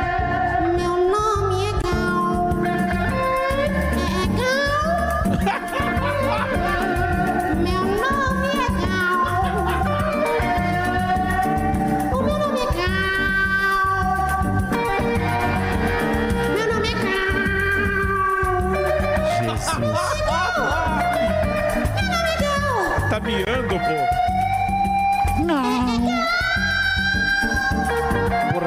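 A woman sings loudly and off-key in a tribute performance over steady instrumental backing, her wavering, wailing notes sliding up and down without pause for the whole half minute.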